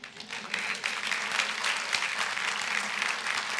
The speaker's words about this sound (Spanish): De un aplauso al Señor que estás vivo.